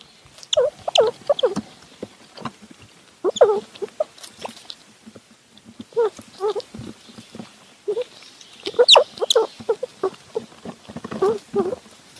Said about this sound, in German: Und bei all den harten Themen in dieser Welt, da finde ich, es kann doch eigentlich nicht schaden, wenn man mal zwischendrin Eichhörnchenbabys beim Nüssefuttern zuhört.